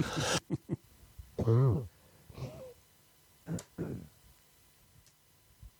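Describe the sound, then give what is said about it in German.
A loud burst of nose blowing at the start, followed by a few scattered sniffs and snorting, throaty noises with quiet pauses between them. “Äh, Entschuldigung, ich musste eben meine Nase putzen.”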